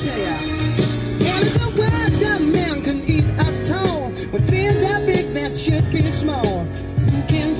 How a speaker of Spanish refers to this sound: Te dije que en mi coche no había mala música, cabrón.